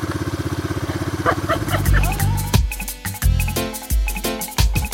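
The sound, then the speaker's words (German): A kick-started motorcycle engine in neutral runs, first a steady rhythmic idle putter, then revving and shifting with bursts of throttle and clattering mechanical noise. “Der Kaiser Motorrad wird nicht abgewürgt, sonst musst du kippen.”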